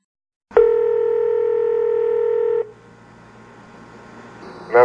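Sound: telephone dialing tones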